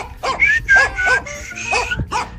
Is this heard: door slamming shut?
no